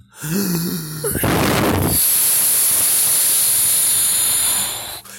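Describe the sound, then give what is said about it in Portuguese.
A hard, breathy blowing sound: a short rough burst of air that turns into a long, steady, hissing whoosh lasting about three seconds before it cuts off, like a wolf huffing and puffing. “Aí o lobo mal disse: eu vou soprar e soprar.”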